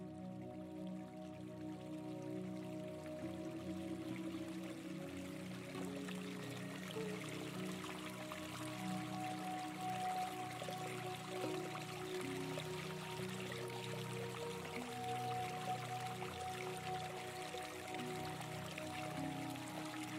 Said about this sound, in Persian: به حجوم ملایم آب که از روی صخره های صاف میگذرن گوش بدین.